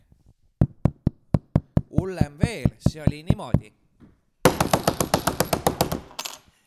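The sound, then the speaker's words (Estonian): Loud, heavy pounding on a door, imitated by a speaker: a steady run of thumps, then a brief spoken line, then a faster, frantic burst of banging, depicting someone pounding on the door at half past midnight. “kell on pool üks, hakkan magama jääma ja järsku käib mu uksel selline prõmmimine.”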